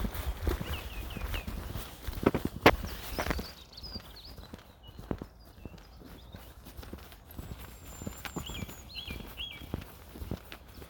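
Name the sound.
bird song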